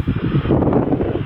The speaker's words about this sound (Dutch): Lekker windje er altijd op dat eiland.